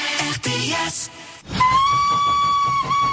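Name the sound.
steam train whistle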